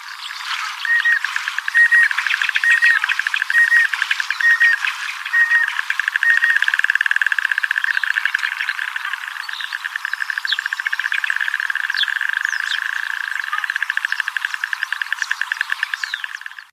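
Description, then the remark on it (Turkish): A white-headed duck (Oxiura leukocephala, Turkish akbaşlı dik kuyruk) calls with a rapid, buzzy rattle of pulsed notes that keeps going almost without a break, steady, with no voices around it. “Oxiura leukocephala'nın o tatlı, e, yumuşacık ezgili sesi şöyle.”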